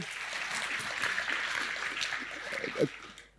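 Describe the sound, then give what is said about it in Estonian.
A burst of applause from a small group, steady clapping filling the few seconds at moderate volume, with a brief vocal sound near the end as it fades out. “teeme aplausi”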